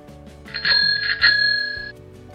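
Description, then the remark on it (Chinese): A bicycle bell rings in a quick burst of several strikes, its bright metallic tone shimmering and lingering for over a second before cutting off, over a low steady background hum. “哦，也有人说它是脚踏茶， 脚踏茶， 脚踏茶， 脚踏茶。”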